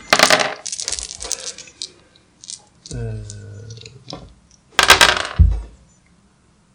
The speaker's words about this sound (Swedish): Ja, slå sex så det funkar. Ja, då får slå en tärning till dessutom. Ja, just det. Ja, extra tärning blir det då, ja.